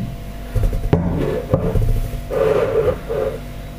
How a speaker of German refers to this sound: So, jetzt kann ich die Tasse praktisch rausnehmen. Ich habe ja alles schon beseitigt. Jetzt nehme ich die Tasse raus und stelle sie einfach um mich hin